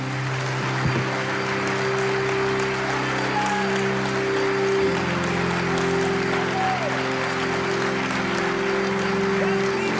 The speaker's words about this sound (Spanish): Dale el mayor, el mayor aplauso al Señor de señores, al Rey de Reyes.